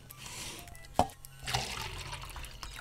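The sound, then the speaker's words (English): Coffee pours into a cup, a steady splashing trickle broken by a brief clink near the start, then a fuller gush as the cup fills. No one speaks. “Pour me another cup.”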